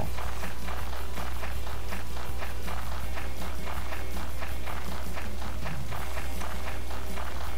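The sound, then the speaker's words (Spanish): A video game character, moved with a controller joystick, runs with footsteps pattering in a quick, steady rhythm for several seconds, clear, over a constant low background hum with no one talking. “Seguimos corriendo.”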